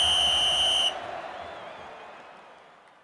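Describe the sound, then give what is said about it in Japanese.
A loud, sustained referee's whistle blast signaling the start of the match at Wembley Stadium, lasting under a second over a roaring stadium crowd, which then fades into a lingering murmur of crowd noise. “さあいよいよ試合が始まりますウェンブリースタジアムです試合開始を告げるホイッスルが吹かれます”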